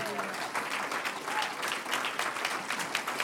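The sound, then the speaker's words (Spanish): A crowd claps steadily in praise of "the one who lives", a dense wash of many hands applauding with no break, moderately loud and sustained from start to finish. “Un aplauso al que vive.”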